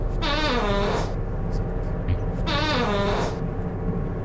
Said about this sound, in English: Wow, it was a double fart.